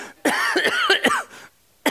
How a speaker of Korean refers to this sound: 어이 갑자기 기침이 나오지 이거. 거짓말했나? 왜 이렇게 어, 어, 축사가 되나?